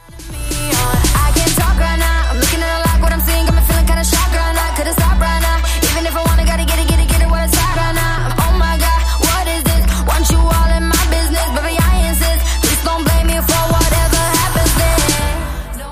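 A loud, full pop track plays throughout, driven by a deep, heavy bass line and a steady, punchy beat with bright percussive hits on top; no one talks over it.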